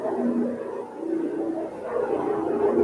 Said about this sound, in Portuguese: Passou um helicóptero aqui, cara, olha que barulho. Você é esse helicóptero é exército, ó, tá vendo? Nossa senhora, demais, né?